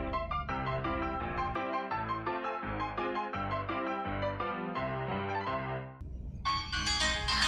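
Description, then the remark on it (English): A bouncy ragtime piano tune plays from a phone speaker, with a steady oom-pah bass line under bright melody notes; no one talks, and it cuts into a brief hissy burst at the end. “Okay, … Ragtime sound. I just played it because I had it on my phone.”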